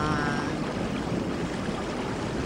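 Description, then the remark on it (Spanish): A torrential downpour of rain, picked up by a microphone left outdoors, roars steadily throughout, a dense, unbroken hiss with no pauses, and a faint tonal trace fading out in the first half-second. “Torrencial aguacero.”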